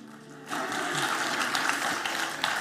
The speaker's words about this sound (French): Vous êtes vraiment en train de l'applaudir, là.